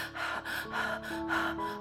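A voice acts out heavy, out-of-breath panting of a boy running from a herd of cows and dogs: about four quick, rhythmic breathy gasps at a steady pace, fairly loud, over a soft sustained musical tone.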